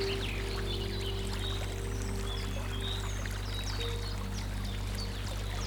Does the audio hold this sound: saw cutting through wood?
no